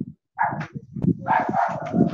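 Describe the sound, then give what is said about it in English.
A dog in a yard barks and growls in a rough, continuous burst of loud, overlapping barks, with no talking over it. “Your your god dog is trying to eat somebody up.”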